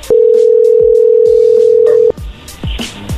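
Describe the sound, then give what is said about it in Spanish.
A loud, steady telephone tone holds for about two seconds amid light clicking as a phone number is redialed, then cuts off, leaving softer clicks and handling noise. No one speaks. “A ver, márcale de nuevo.”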